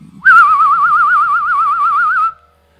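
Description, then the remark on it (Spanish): A person whistles a single sustained, wavering note imitating a hooting night bird, the pitch trilling rapidly up and down for about two seconds before stopping abruptly. “en lugar de aullar cuando andan cazando, ululan como ulula el pajarito este.”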